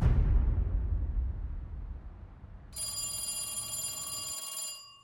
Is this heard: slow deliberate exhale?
no